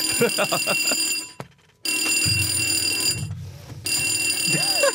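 A fire alarm blares in a studio with a loud, piercing, steady electronic tone, cutting out briefly twice before resuming, while people talk underneath it.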